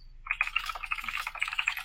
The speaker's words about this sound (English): Are you googling Angela Bassett? Is that what that clicking